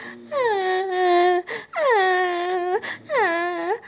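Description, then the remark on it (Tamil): A voice imitating an elephant crying: three long, loud, wailing sobs, each sliding gently downward in pitch, with brief gaps between them and no other talk. “அப்படின்னு அழுந்துக்கிட்டே வெளியே வந்ததாம்”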